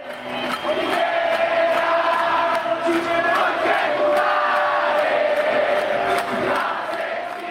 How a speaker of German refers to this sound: Piñera, du Arschloch, du Mörder, genau wie Pinochet, hören wir hier im Hintergrund.